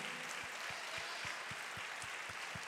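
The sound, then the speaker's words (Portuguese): A church audience applauds to celebrate the Lord Jesus, steadily in a dense, continuous wash of clapping, underpinned by regular low thumps about four times a second, like a rhythmic beat running through the crowd's applause. “Aplauda o Senhor Jesus, celebre a Ele.”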